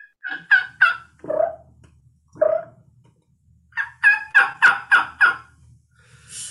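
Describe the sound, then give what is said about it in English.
A voice imitates a turkey gobble: a quick run of three warbling notes, two lower, drawn-out yelps, then a loud, rapid rattle of about six gobbling bursts, with no talking. “This is like a big Tom out in the field.”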